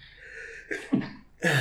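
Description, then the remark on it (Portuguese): A sudden sneeze: a short sharp intake and sputter, then a loud, breathy explosive burst at the end, with no one talking. “Desculpa. Santinho.”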